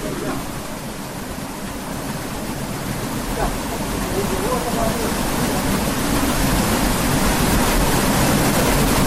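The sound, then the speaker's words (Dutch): A steady, loud wash of rushing water fills the whole clip, with a deep low rumble underneath from the turning mechanism of a watermill being demonstrated, growing slightly louder over time; no one speaks. “het gedreun van het mechaniek en het water spectaculair”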